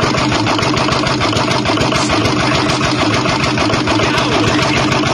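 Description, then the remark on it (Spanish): A car engine runs loud, its rough idle broken by steady, rapid knocking pulses that repeat throughout, from a faulty motor said to need replacing with a new engine. No voices are heard. “¿Cuál es el problema que tiene este carro? Escucha todos los sonidos que está haciendo.”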